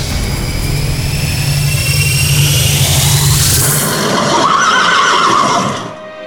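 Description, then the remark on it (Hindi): Horses neigh loudly over a rumbling, rushing roar as Indra's chariot, sent for Shri Ram, arrives; whinnies rise and fall for several seconds before the sound fades out at the end. “श्री राम करते पूर्ण रावण वध का व्रत उससे पहले भेज दिया इंद्र ने अपना रथ”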